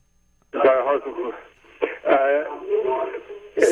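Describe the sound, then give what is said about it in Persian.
Muffled, thin-sounding speech from a caller's television plays continuously through a phone line during a call-in to a TV program, the words unclear, rising and falling with brief pauses. “ببخشید صدای تلویزیونتون میشه کم کنید بله کم کردم آفرین”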